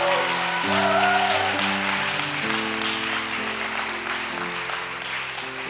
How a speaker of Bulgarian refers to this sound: О, ако ръкопляскаш, ръкопляскай, като че даш дарение на Бога.